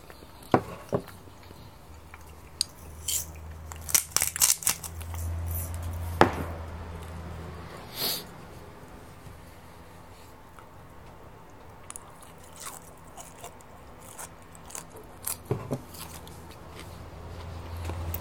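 Crunchy biting and chewing of food, recorded with a TASCAM DR-07X, with sharp irregular crunches clustered early and scattered through the rest, over a low steady hum, and no talking.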